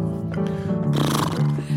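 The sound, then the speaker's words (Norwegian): A horse whinnies in one loud, drawn-out call lasting under two seconds as it ploughs its way through a heap of mud, with a breathy, rough burst in the middle before the pitch steadies again. “Se, hesten bare måker vei i hele gjørmehaugen.”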